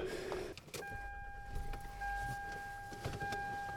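People climbing into a car on a bitter, blustery day to drive to a cattle pasture: a few dull door and seat thumps with rustling movement, a steady electronic door chime ringing throughout, and a low rumble underneath.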